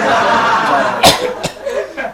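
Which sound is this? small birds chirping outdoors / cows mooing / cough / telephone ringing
cough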